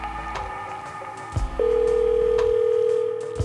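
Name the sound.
telephone ringing tone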